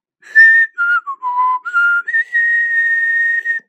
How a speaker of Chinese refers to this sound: 狼吹着口哨，继续向前走。